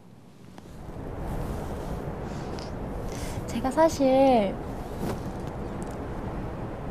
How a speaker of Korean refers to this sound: 바람 소리 늘 준비를 했는데 아까 들어보니까 되게 비행기 소리가 그러네요. 네. 약간 비행기 탈 때 그 바람 소리 같아요.